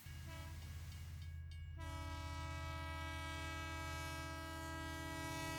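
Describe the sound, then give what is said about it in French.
A Mumbai commuter train with open doors rumbles loudly, a heavy steady roar throughout, joined partway through by a long, sustained horn blast that holds to the end. “Pour mener mon enquête, je passe beaucoup de temps dans le train. Les trains de Bombay n'ont pas de porte fermée.”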